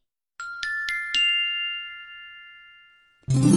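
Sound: bell ringing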